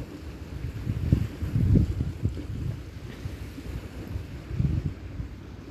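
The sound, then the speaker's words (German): Soft, steady sea surf washes in with low rushing swells on a beach covered with seagrass, seaweed and stones at a firth, a couple of fuller surges rising and falling, mixed with a light, fresh wind buffeting the microphone; no voices. “Das Rauschen Me des Meeres ist wie, hüllt mich gerade ein wie Balsam, wie Balsam in meinen Ohren.”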